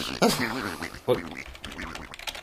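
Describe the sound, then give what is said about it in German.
A duck pecks at a computer keyboard, producing a few sharp, irregular clicking taps, with voice-like murmuring running underneath. “hackt auf der Tastatur herum.”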